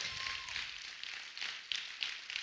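A crowd applauding: a steady wash of many hands clapping at once, with a few sharper claps standing out, heard from a moderate distance with no one talking.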